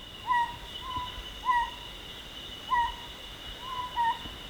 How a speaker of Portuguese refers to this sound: Martim Melo descreveu o mocho do príncipe mais de 20 anos após ter ouvido este canto distintivo pela primeira vez. Trata-se de uma ave endémica da Ilha do Príncipe e que está fortemente ameaçada.